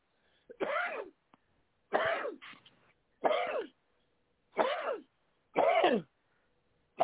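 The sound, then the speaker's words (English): Five sharp sneezes, one after another at a fairly steady pace, each a loud, breathy burst with short silent gaps between. They stand alone without talking. “You always sneeze when you're on I the got, show.”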